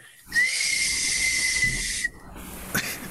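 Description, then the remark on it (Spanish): A breathy, airy whistle made by blowing through a drinking straw holds one steady thin tone for about two seconds, then cuts off. A brief softer puff of air follows. “A mí me acuerdo era que con el popote como que chiflaba, si le soplaba se escuchaba.”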